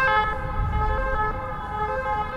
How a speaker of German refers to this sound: Ein Krankenwagen. Was hast du gesagt? Das ist ein Krankenwagen. Alter Schwede.